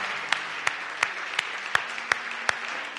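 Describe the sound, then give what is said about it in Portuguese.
A standing audience applauds Jesus Christ, a dense wash of many hands clapping punctuated by sharp, evenly spaced accents, as though part of the crowd claps together in a steady rhythm of roughly three beats per second. “Uma vez que estejam de pé, dê um aplauso a Jesus Cristo uma vez mais.”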